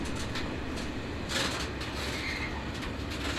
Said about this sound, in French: Les trains qui tirent des wagons vides sont plus rapides les trains chargés passent plus lentement.